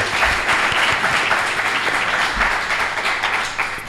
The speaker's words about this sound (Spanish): Un aplauso, un aplauso para la Fundación de Amigos del Museo de Escultura, por favor.